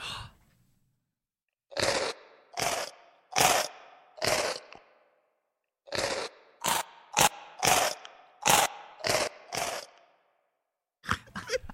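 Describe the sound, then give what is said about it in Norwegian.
Crunchy chewing sounds pitched up and down into a tune, played as a rhythmic series of loud bites: four spaced crunches, a faster run of about seven, then a brief pair at the end. “Men det er laget tygging. I en melodi.”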